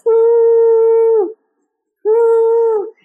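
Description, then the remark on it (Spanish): A voice imitates a long, eerie whistle heard in an apartment in Mexico City, holding two steady, clear tones, each dipping slightly as it fades, with a short pause between them. “imagínense que llegué a Ciudad de México y estaba sola en un apartamento y de repente empiezo a oír un silbido, así como”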